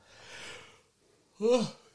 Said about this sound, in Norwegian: Det her er ikke god god innspillingsmodus etter å gjespe på.